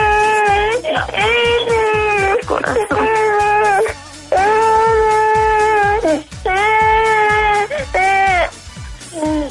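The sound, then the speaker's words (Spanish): A baby girl wails loudly in long, high-pitched, quavering bursts, pausing briefly for breath between cries, with a faint steady low thumping running underneath. “Espérame, que mi me está llorando y no quería hablar contigo, no se cree.”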